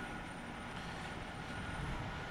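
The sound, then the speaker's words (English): A truck engine rumbles steadily, a dense, continuous low roar with a hissing wash on top that holds even throughout, with no voices. “It's kind of nice when the truck's around. I feel safe with that very loud noise.”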